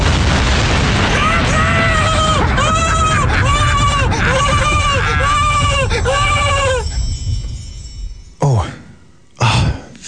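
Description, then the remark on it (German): A loud, rumbling blast roars under a string of repeated, wavering bleats from a donkey, followed by a short pause and two more sharp, booming bursts. “Guck mal, da der Esel! Komm, dem spreng ich den Sack weg!”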